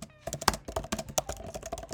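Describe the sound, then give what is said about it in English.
Rapid typing on a computer keyboard as someone types a to-do note into a planner, a steady stream of quick clicky keystrokes with a faint tonal hum and occasional soft background noise. “if you can hear me typing right now, I'm typing to do more episodes.”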